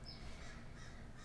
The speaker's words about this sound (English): I also do live in um, a city, so there might be some noises in the background. There's some birds that are yelling at me outside, which is very rude. I think they are not saying very kind things.